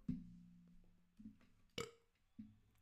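human body sound, burp

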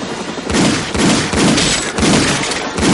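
sound effect, gunfire

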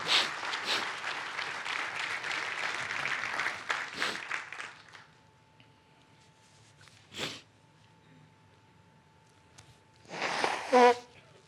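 crowd, audience applauding

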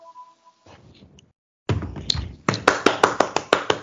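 crowd, applause

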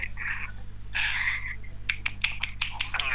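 human body sound, hand clapping

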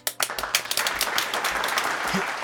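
sound effect, applause sound effect

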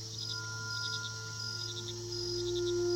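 ambience, night

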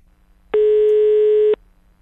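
signal or alarm, telephone line tone

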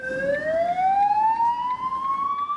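vehicle, ambulance siren

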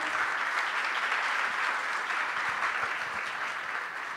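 crowd, audience applause

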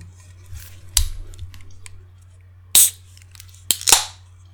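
food or drink, beer being opened

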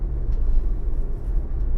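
ambience, inside a parked car

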